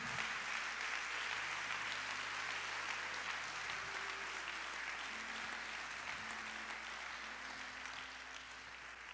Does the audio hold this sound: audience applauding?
yes